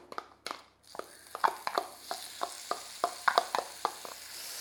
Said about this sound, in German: Ich mache es jetzt so, ich werde zuerst einmal hier den Lauch anbraten.